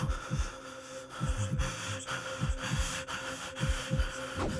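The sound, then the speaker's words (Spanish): A heartbeat thuds steadily in low, muffled double beats, insistent, with a faint hum droning beneath it and no voices. “Sus latidos aumentaron la frente se le llenó de un sudor frío.”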